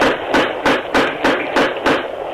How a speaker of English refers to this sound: Where's the doorbell? Well, there isn't any. Oh, here's a knocker over here.